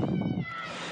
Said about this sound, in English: I don't know if you can hear his sister … screaming in the background.